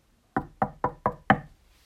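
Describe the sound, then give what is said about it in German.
Five sharp knocks on wood at a newly built wooden horse stable, in quick succession, the last one slightly louder, each with a hollow, resonant thump and brief decay, with no voices. “Holz und ein Wiehan.”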